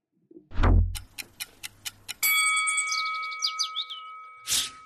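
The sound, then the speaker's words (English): A clock sound effect as a timer starts: a loud low thump opens into a run of evenly spaced clock ticks, followed by a bright sustained chime with a shimmering tail and a final burst of noise. “Clock starts when the first tweet goes up.”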